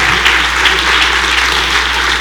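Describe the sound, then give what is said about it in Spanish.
An audience applauds the Lord loudly, a dense, steady wash of many hands clapping that holds at an even level for a couple of seconds with no voices heard above it. “Si usted lo cree, dele un fuerte aplauso al Señor.”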